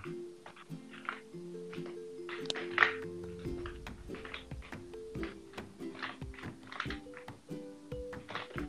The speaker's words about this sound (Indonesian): ya sekarang kita cuma dengerin asmer keyboard doi